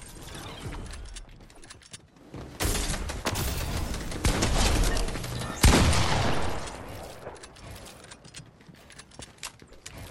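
video game gunfire

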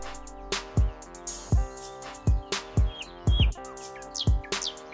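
bird song

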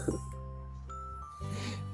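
chime jingle

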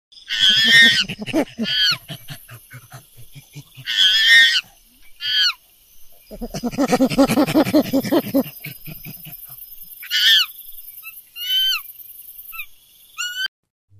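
monkeys calling

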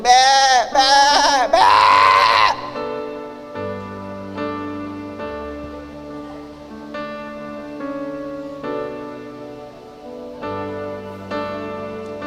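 sheep bleating

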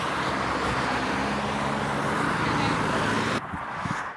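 car driving past

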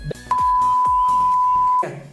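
censor bleep over swearing

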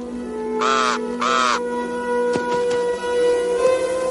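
crow cawing

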